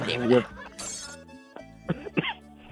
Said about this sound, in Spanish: Y le dio tos al hombre.